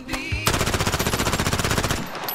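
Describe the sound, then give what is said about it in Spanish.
A rapid, evenly spaced burst of machine gun fire, about a dozen loud shots per second, runs for roughly a second and a half before cutting off. “Basta de tanto pianito, la ametralladora”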